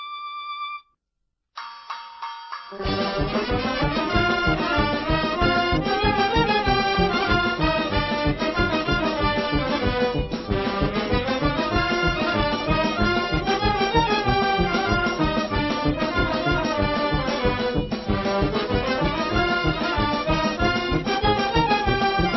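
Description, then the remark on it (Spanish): Traditional music from Tlahuitoltepec in the Sierra Mixe of Oaxaca: a short beeping tone and a brief pause, then a loud, full ensemble plays continuously with a steady pulsing beat and layered melodic lines. “Lo que escuchan es música de Tlahuitoltepec, en la Sierra Mixe, en Oaxaca.”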